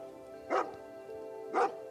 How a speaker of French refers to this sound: Le chien continua à aboyer en se dirigeant vers le lac.